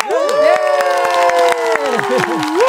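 A small group in a studio cheers and whoops loudly over brisk, steady clapping, welcoming a band's new song release. Energetic, with several voices holding sustained, sliding shouts for the whole stretch.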